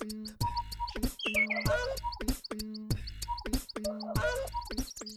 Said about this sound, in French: Et ça consiste à, à mêler différents cris qu'on fait boucler pour une composition plus ou moins inspirée, comme vous pouvez l'entendre en fond.